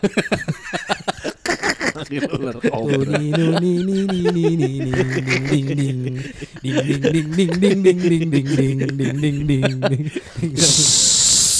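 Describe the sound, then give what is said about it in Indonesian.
A person mimics a cobra: a wavering, nasal hummed tone rises and falls for several seconds, then breaks into a loud, sustained hiss close to the mic. “Bini gue manggil ular kobra biasanya itu kan. Serang dia.”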